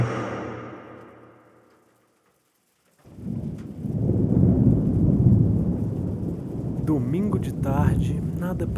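A fading tone gives way to brief silence, then steady heavy rain pours in with a deep, rolling thunder rumble, continuing loud and unbroken; a faint wavering voice-like sound surfaces near the end.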